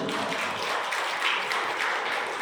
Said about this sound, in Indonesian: Tepuk tangan buat Tuhan itu.